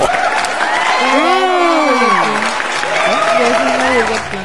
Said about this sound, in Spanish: Aplausos para el niño del Oxxo.